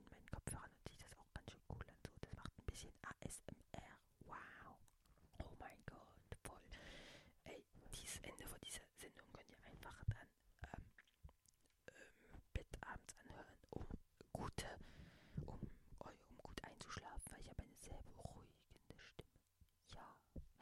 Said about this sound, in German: Ich meine, so, wenn ich das noch reinflüster.